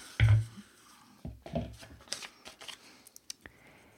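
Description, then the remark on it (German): Papery rustling and shuffling of paper question slips being mixed and rummaged through to draw the next question, with a soft thump at the start and a few crisp flicks toward the end. “Weiß gar nicht, ob man das Mischen hier hört.”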